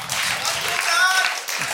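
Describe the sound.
An audience applauds a dancer at a show, steadily for nearly two seconds, a dense crackle of many hands clapping, with a few brief whistles or cheering voices rising above it.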